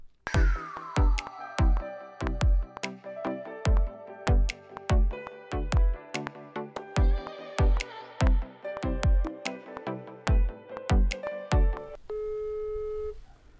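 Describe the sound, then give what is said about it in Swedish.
A phone line rings out for an outgoing call to a friend: a steady run of short electronic tone pulses, fairly loud, with no voices, ending in a brief held tone as the call connects. “Så att ja, jag ringer upp henne så ska vi se vad hon har att säga om det här.”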